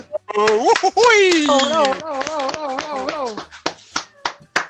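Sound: clapping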